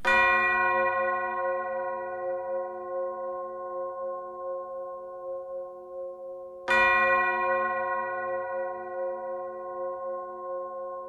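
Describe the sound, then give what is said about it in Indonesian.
A large bell rings twice as someone steps into a coffee shop, each strike sharp and loud with a rich, long-ringing tone that slowly fades, the second stroke coming about seven seconds after the first. “Suara lonceng terdengar saat ia melangkahkan kaki ke dalam kedai kopi itu.”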